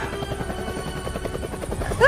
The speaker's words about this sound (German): startet und fliegt den Helikopter im leichten Zickzackkurs über den Park hinweg.